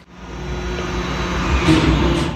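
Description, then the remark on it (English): A garbage truck's heavy engine rumbles steadily with a deep drone and a broad hiss, growing a little louder toward the end as it passes. No one speaks. “now it's the garbage car garbage camion camion it's the garbage car i think”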